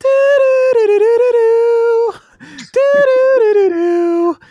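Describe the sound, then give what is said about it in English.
A voice loudly imitates the saxophone riff of a well-known song, humming two sustained, wavering melodic phrases with a short breathy pause between them, alone. “That's my best uh, sax impression that I could do.”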